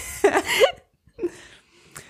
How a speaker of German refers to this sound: Es gelten hier oh, jetzt kommt hier der Husten durch. Nein, ich bin gesund, Freunde.